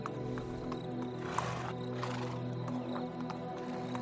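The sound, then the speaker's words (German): A horse whinnies and snorts at a castle's stud, where court hunters saddle their horses, with a steady low hum and scattered sharp clicks or hoof knocks in the background; there is no talking. “Die Hofjäger satteln hier ihre Pferde und rufen zur Jagd, um die königliche Küche zu füllen.”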